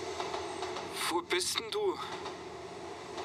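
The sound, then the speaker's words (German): A train rumbles steadily in the background of a voice message beneath a short spoken question, its low continuous drone filling the whole recording. “Hören Sie das? Wo bist denn du? Das ist ein Zug.”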